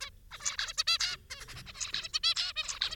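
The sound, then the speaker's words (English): A busy flurry of zebra finches calling: quick, nasal, honking chirps overlapping in rapid bursts, with no one speaking. “Steve wanted to find out whether a bird, the zebra finch, saw colour in a categorized way, like Ellie saw that picture of the rainbow.”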